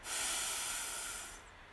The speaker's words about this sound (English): We'll take three deep breaths. We'll extend our belly on the in breath. We'll hold for a slight moment at the top and then exhale with a loud, audible sigh. We do this three times. So let's start. Deep breath in, extend your belly.